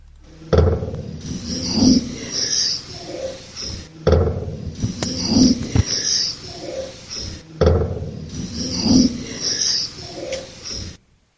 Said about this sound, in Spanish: que es un portazo, escucha luego ahí y luego otra voz que pregunta en este caso quién es